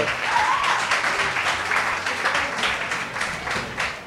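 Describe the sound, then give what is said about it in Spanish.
Steady applause from a crowd, dense overlapping claps sustained at a fairly even, loud level for about four seconds, with a faint voice briefly audible underneath. “Un aplauso, por favor.”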